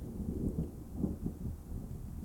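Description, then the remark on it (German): A heavy downpour roars steadily, almost deafening, a dense, low rushing wash of rain with a deep rumbling undertone and no voices, holding at an even, loud level throughout. “Also ihr habt auch langsam das Gefühl, als wäre dieser Regen fast ohrenbetäubend.”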